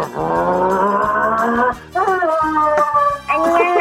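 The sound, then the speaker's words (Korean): A person on a radio show's impression contest vocally imitates a racing car with loud, sustained buzzing drones, broken into three long bursts with brief gaps, the pitch shifting and rising like an engine revving. “자, 경주차 소리 들어보겠습니다.”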